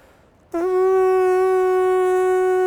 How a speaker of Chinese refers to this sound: 比如说现在我深吸一口气，吹出去哈。要把这个气吹得非常有力量，在这个力量当中呢，还要把这个嘴唇带动起来，